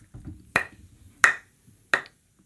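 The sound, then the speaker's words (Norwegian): Three sharp, dry wooden knocks, evenly spaced about two-thirds of a second apart, as two split dry firewood logs, stored indoors for two seasons, are struck together, with faint low murmuring in the background. “Jeg har med to vedkubber som har ligget ja, inn til meg da, Jeg kjenner min innendørs i to sesonger nå, så vi kan jo høre eh, lyden av tørr ved.”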